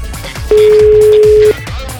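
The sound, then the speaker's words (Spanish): A single steady telephone dialing tone sounds clearly for about a second, loud, over a low, murmuring background, as a call is dialed for a prank on the Panda Show radio program. “Estoy marcando.”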